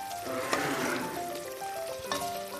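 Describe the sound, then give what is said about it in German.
About 150 grams of white coconut fat melting in a pot on a stove at medium temperature gives off a steady sizzle and light crackling, with a soft melody playing underneath and no talking. “Um die 150 Gramm Kokosfett zu schmelzen, gebe ich es in einen Topf.”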